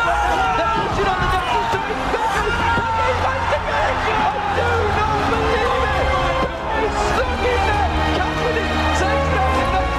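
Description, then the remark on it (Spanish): A large crowd at an esports event roars and cheers loudly and continuously for ten seconds, a dense wall of noise with excited voices shouting over it, reacting to a 2013 play in League of Legends. “Escucha cómo ruge esa multitud.”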